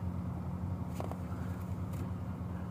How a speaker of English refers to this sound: Oh, that's, that's the car again. Is it they wanna take revenge or... No, oh, they're going the other way.